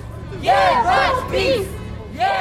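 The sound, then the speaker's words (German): A protest crowd chants in unison at a demonstration in Poland, loud rhythmic bursts of many raised voices, repeating a short slogan, heard as "Fuck Peace", about three or four times with brief gaps between shouts. “Und du hast mir auch ähm, äh, ja, so ein paar Aufnahmen mal geschickt von Demos.”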